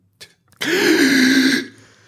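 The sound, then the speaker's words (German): A voice imitates a heavy, drawn-out dying gasp: a short intake, then one long, strained, raspy breath held for about a second before fading. It is loud and alone. “mit dem Headset hatten wir äh, sehr viele Atmen, Atemgeräusche. Okay. Und zwar so, als würde jemand sterben.”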